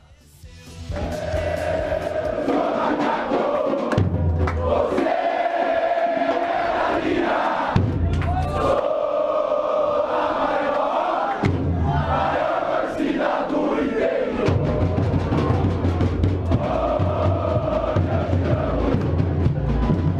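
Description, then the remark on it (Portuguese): A large crowd of Ponte Preta football supporters sings the chant "Eu sou macaco" in unison, loud and continuous for about twenty seconds, the massed voices rising and falling in repeated phrases with a rough, echoing stadium roar beneath. “Eu sou macaco é a música que vamos ouvir”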